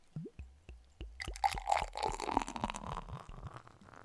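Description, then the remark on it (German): Beer glugs and gurgles as it is poured into a glass, a rapid series of bubbly pulses with a frothy hiss rising over the four seconds, no voices present. “Aber warte, ich, ich mach's, ich schenk's mal hier so in, vielleicht hört man's.”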